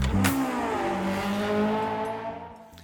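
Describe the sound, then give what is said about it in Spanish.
A car engine revs hard and accelerates during a test drive, its rising harmonic whine climbing steadily over about three seconds, loud, with no voices present. “Vamos a hablar de cochecitos con test drive.”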